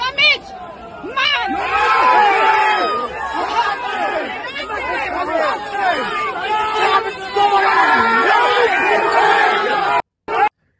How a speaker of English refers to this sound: Do you hear all the people in the backdrop? While they're beating this guy, do you hear all the people in the backdrop? She's beating him. People all yelling.